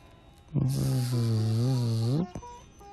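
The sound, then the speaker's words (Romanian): A voice imitates a mosquito with a single sustained buzzing drone lasting under two seconds, loud and steady with a slight waver before it cuts off abruptly. “se aude un țânțar.”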